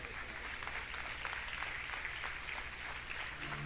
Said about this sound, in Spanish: El día que estemos cara a cara de un gran hombre, le damos un aplauso, Señor Jesús.